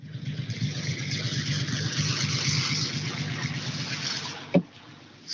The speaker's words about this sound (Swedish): Kan i alla fall ge lite Porsche-ljud när vi gasar iväg.